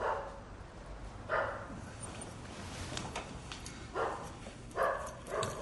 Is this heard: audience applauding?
no